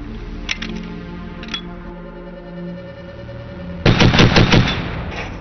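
A DShK heavy machine gun fires: two isolated sharp reports early on, then a loud, rapid burst of automatic fire lasting about a second near the end, with no talking.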